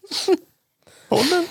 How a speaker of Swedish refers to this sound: oj, prosit.